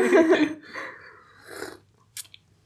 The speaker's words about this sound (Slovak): Tak prejdeme teda k druhému kroku a kávu si usrknem. Paru srkáme dvakrát.